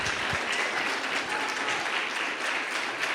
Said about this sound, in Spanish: Muchos aplausos de parte de este público que por lo que veo le ha gustado mucho tu música.